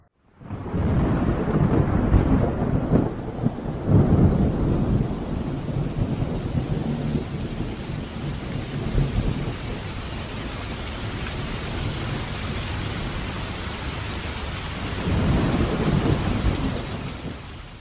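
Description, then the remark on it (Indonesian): A thunderstorm with heavy, steady rain pouring down, broken by deep rumbling thunder early on and again near the end. No one speaks. “Musim hujan ini memang selalu tak enak untuk kami, para petani.”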